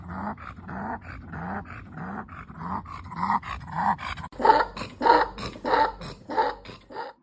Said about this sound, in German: wie der Hund versucht, ähm, nach na, ja, Luft zu bekommen. Und er macht dabei wirklich sehr heftige Geräusche.